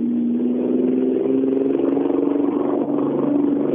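A racing car engine, Båt's car, roars loudly, holding a steady, buzzing revving note with slight rises and dips in pitch throughout, with no voices.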